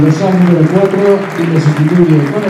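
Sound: stadium crowd applause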